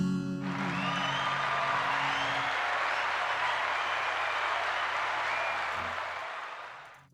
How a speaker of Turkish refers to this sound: Alkışlar.